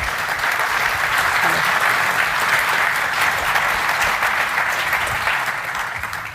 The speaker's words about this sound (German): Nochmal Applaus für die beiden. Danke dazu.